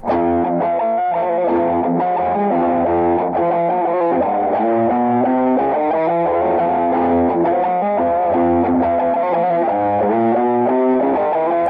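A distorted electric guitar riff in a heavy metal style plays continuously at a steady, loud level, its repeating chugging notes and harmonics forming a rough, early-demo sound with no voices.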